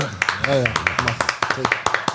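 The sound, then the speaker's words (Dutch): A small round of applause for a guest: a few hands clap in a quick, steady rhythm, fairly loud, with a voice calling out briefly near the start. “Applaus voor de”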